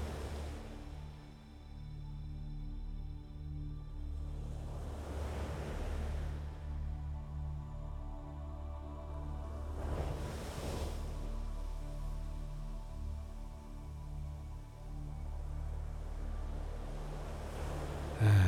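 Gentle ocean waves wash onto a beach in slow surges, swelling and receding every few seconds over a steady low rumble of surf, with no voices present.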